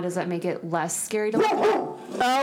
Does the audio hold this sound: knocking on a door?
no